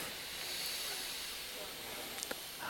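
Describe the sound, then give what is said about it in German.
A slow, steady breath drawn in through the right nostril during a breathing exercise, a soft airy hiss that holds for a few seconds, quiet, with no talking. “Atmet rechts ein.”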